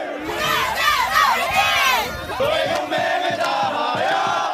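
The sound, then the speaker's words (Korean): A crowd of younger students cheers loudly in unison outside a Korean college entrance exam (suneung) hall in 2019, in the early-morning cold, for the test-takers. Their shouts rise and swell, then settle into a rhythmic chant with steady, repeated beats toward the end. “수능 한파, 후배들의 원소리, 함성, 매년 반복되는 익숙한 풍경이었는데요.”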